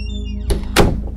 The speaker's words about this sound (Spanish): Minutos después, escuché que abrieron la puerta de la calle.